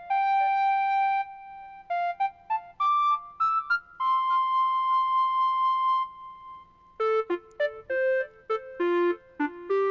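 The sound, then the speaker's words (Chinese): The '1950s sci-fi film' synth lead preset on a keyboard's smart piano, used to imitate a euphonium: a retro, theremin-like lead plays a slow melody with long sustained, gliding notes that turn into shorter, quicker stepping notes near the end, with no voices. “所以我们现在听到的是一个五十年代科幻片，我们听听看，大家觉得像不像，好不好？”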